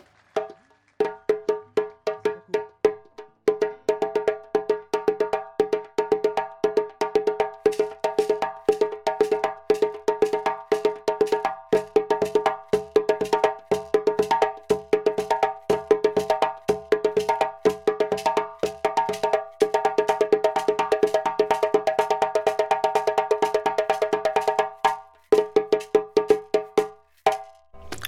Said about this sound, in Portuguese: Este é o cucu? Cucu. É, eu fiz aqui dois pequenos acompanhamentos de cucu. Existem mais acompanhamentos.